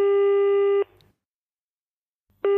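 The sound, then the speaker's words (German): A telephone ringback tone sounds on an unanswered call made from a mobile phone: a steady electronic buzz lasting under a second, a long silent pause, then the next ring starting. No voices. “Natürlich geht er nicht ran.”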